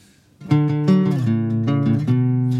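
A loud, driving pop-punk guitar riff: thick, distorted power chords strummed in quick repeated attacks, shifting through a few lower chord changes with no voices.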